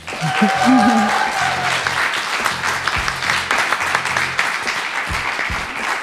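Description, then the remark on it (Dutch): Sustained applause from a live audience, steady dense clapping for several seconds, with a brief whistle or cheer early on and faint voices beneath. “Maar ik zou graag een mega fantastisch applaus willen”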